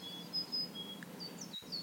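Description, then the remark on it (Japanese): Thin, high bird chirps and whistles come and go softly over a quiet background hush, with several short calls overlapping, like small songbirds calling among the trees of a forest. “木々が立てる音や小鳥のさえずりに意識を向けましょう”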